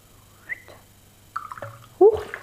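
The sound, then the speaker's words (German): A short splash of water poured into a glass of whisky, with bubbling gurgles and a brighter rising burst near the end, fairly quiet against a low hum. “Ich werde mal hier einen Schluck Wasser zugeben.”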